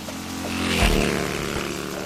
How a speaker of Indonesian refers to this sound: Sampai kapan kita neduh di sini? Iya, hujannya tambah deras lagi.